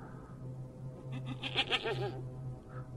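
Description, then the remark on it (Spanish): A goat lets out one long, quavering bleat that wavers up and down for about a second, heard clearly over a steady low background hum. “Cuando escuchamos el balar de una cabra.”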